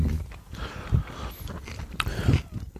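Crunchy bites and chewing of crisp toast topped with butter and cucumber, with two sharper crunches about a second apart amid steady mouth noise, no talking.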